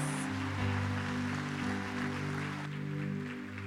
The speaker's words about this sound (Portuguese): Aplauda o Senhor, glória a Deus.